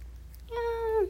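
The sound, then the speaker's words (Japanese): A single drawn-out meow from a pet cat, clear, rising slightly then falling off at the end, with a faint low hum underneath and no talking. “にゃんこがね今私の目の前におって「いたたたたいキックしないの」”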